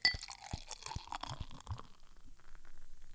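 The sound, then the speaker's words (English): Glass clinks once or twice, then beer pours steadily from a bottle into a glass with a foamy, bubbling fizz that builds toward the end. No one speaks. “My mom always told me when you're drinking beer, you should, or good beer at least, you should be pouring it in a uh, the appropriate glassware.”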